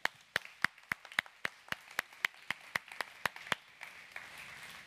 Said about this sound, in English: Can we clap for them as they go?